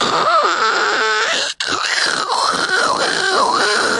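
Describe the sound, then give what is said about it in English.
A voice imitates an espresso machine frothing milk, making a loud, continuous hissing, gurgling sound with a wavering pitch, broken by one brief pause partway through. “That's the sound of my espresso machine making the foam.”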